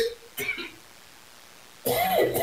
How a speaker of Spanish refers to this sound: perdónenme por la tos,